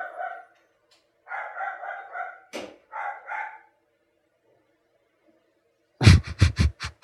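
A dog barks in short, tonal bursts, pausing after a few, then fires off a rapid run of about five louder, harsher barks at the end. No one speaks.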